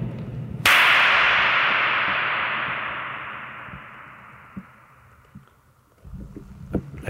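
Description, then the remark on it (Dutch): A single sharp handclap rings out in an echo room where no two walls are parallel, the sound reflecting off all the walls, its echo washing on and slowly fading over several seconds, followed by faint shuffling and small knocks. “Eigenlijk is het een soort echo natuurlijk dat je hoort.”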